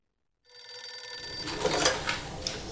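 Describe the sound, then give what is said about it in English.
A telephone bell rings with a bright, continuous metallic trill that starts abruptly after a moment of silence and keeps going, loud, with some added clatter toward the end. “Tom got a phone call from someone named John, John who said he was interested in unloading his black Chevy yes.”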